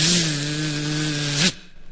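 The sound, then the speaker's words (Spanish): A voice imitates a fly buzzing on a bus with a steady, droning 'zzz' held for about a second and a half at an even pitch, then cut off abruptly, leaving quiet. “El viejo todo amargo así, y en eso vino una mosca.”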